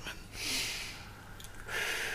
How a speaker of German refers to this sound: Ja, atme mal und versuch mal so ganz gleichmäßig und schön und tief zu atmen.